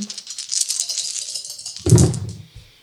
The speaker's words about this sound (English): Uh, did you did you want to make an insight roll, both of you? but individually, of course. Insight by four dice on insight.